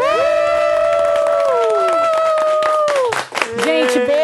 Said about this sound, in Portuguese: É isso, gente. Uma salva de palmas pro Wanda 200.